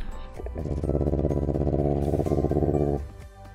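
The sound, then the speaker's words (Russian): A loud, steady Subaru WRX STI engine rumble with a throbbing, pulsing low burble, swelling in quickly, holding for a couple of seconds, then dropping away, heard on its own with no talking. “Так, теперь мы слушаем Subaru в RX STI.”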